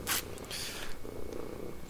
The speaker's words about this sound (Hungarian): Vicces volt, hogy itt horkol valaki, nagy zaj közepette.